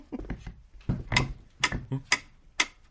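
A homemade mechanical metronome, a beat-counting machine whose speed is set by a weight at the bottom, ticks steadily at a moderate tempo. Its sharp clicks are spaced about half a second apart with faint rattling between beats.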